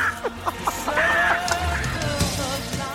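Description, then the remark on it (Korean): A woman in her early thirties imitates a crow's caw on a voice-impression segment of Park Myung-soo's Radio Show, giving a run of harsh, squawking calls one after another, fairly loud with little pause between them. “30대 초반의 여성분이 까마귀 소리 들어보겠습니다.”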